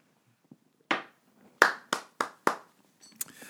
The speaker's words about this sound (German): Ich muss klatschen, weil es so schön ist.